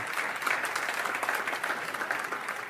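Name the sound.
audience clapping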